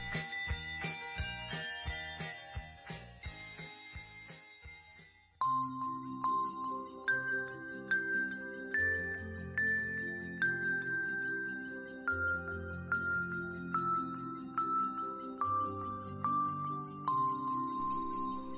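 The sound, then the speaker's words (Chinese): Bright ringing sleigh bells play a tinkling melody, starting with a quick, quieter run of repeated notes and swelling after about five seconds into fuller, sustained chiming tones over a soft warm backing, with no voices. “在寂静的大森林中，圣诞老人和狼闭着眼睛，手和爪子紧紧握在一起，静静的听着身后的铃声。”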